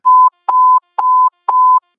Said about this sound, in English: Those alert tones are letting us know about the crazy stuff that's happening in the drug world.